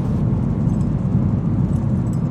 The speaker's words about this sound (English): I'm sitting in the car driving to work.